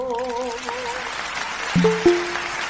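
Steady applause from an audience fills the moment, a dense wash of clapping as a sustained sung note fades out at the start, with a couple of brief cheers cutting through near the end.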